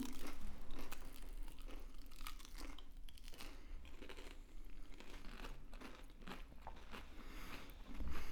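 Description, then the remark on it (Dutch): Crunching of someone biting into a crispy crust with hardly any sauce stuck to it, a steady run of crackly bites and chewing for several seconds with no talking. “Ik heb hier een stukje korst. En daar plakt bijna geen roe aan vast. Echt alsof die, die korst is zo knapperig en zo niet in die roe getrokken.”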